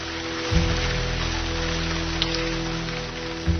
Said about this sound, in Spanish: No ha dejado de llover en diez días y el sonido monótono de la lluvia es lo único que escucho.